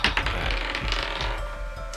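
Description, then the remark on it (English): Dice rattle and clatter in quick succession, a dense run of small hard clicks and taps tumbling across a surface, fairly loud with no voices; the dice are rolled to decide whether a boat sustains damage. “I'm going to roll for the integrity of the boat.”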